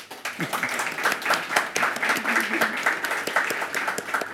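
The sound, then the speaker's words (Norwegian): An audience applauds a history professor from UiB as he is introduced, dense overlapping claps forming a steady, fairly loud wash that holds for several seconds. “Applaus.”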